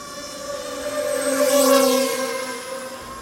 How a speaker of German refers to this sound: Das haben die meisten von euch sicher schon mal gehört, so eine Drohne.